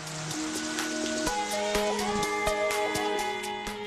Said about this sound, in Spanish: La lluvia cae sobre la tierra caliente, lo que aumenta la evaporación.